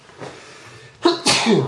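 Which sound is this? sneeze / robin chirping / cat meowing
sneeze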